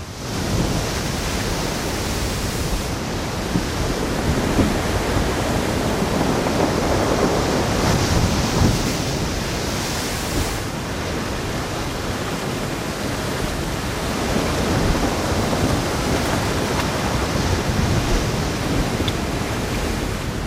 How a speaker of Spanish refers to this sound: temporal muy duro, el zumbido de la torre del Fado de Cabo Vilán que parece que se va a venir abajo. 115 kilómetros por hora.